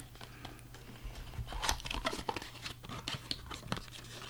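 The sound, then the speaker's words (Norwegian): Crinkling and tearing of paper as a small paper door of an advent calendar, door number 14, is picked open, a series of quick rustles and rips over a steady low hum, with no talking. “Men kan ikke du legge fra deg saksa litt, og så um, ehm, gjør deg klar til å åpne ja, luka? Ja! luke 14.”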